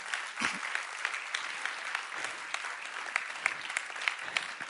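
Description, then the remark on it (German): An audience applauds the Lord steadily, a dense wash of many hands clapping at a moderate level with scattered sharper claps standing out, sustained throughout without pause or talking. “Ich sage dir, ja, gib mal dem Herrn einen Applaus.”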